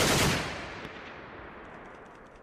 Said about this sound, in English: and they start shooting. So I crouch down.